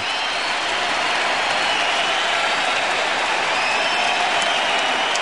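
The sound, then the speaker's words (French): Sustained, dense applause from a huge crowd, a steady roar of clapping without pause: a three-minute standing ovation for Michael Jordan at his farewell, considered the longest standing ovation in sports history. “Les applaudissements durent trois minutes. Et dans le monde du sport, c'est considéré comme la plus longue standing ovation de l'histoire.”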